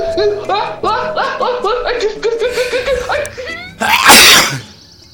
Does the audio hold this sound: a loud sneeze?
yes